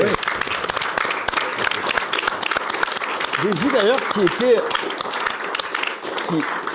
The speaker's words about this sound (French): Qui est là, en coulisses. On peut, bah, on peut l'applaudir.